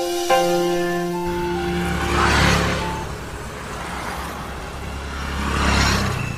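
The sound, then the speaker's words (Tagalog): Busy road traffic: a short horn blast at the start, then two jeeps whoosh past a few seconds apart, each swelling and fading over a steady low engine rumble, while people wait for a gap in the jeeps to cross the road. “habang naghihintay na walang jeep na dumaan para makatawid na sila.”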